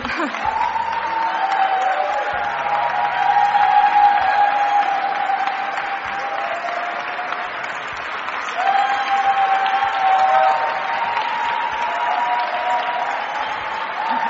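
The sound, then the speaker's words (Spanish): Loud, sustained applause from a large crowd at an LGBT conference in Las Vegas, after a Hollywood actress says she is gay: a steady dense wash of clapping with some cheering and whoops rising through it, swelling again midway and lasting the whole stretch. “Menudo aplauso, ¿eh?”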